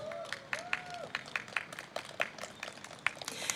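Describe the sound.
A small live audience claps in quick, uneven bursts, with a few voices calling out and a brief whistle-like cheer, moderately loud for a few seconds.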